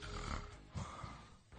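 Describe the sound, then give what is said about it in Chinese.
On a prank phone call, a person fakes snoring as a sound effect with a few rough, rattling, low snorts, loud and uneven in rhythm. “大姐，你回复一下，你不能光打呼噜 啊！”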